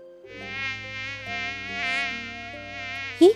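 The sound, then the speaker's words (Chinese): A mosquito's thin, steady whine drones on for about three seconds at a campsite at night, its pitch wavering slightly, then ends with a brief, louder rising zip. “这是什么声音呀？原来啊，是一只蚊子。”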